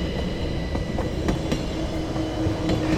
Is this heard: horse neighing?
no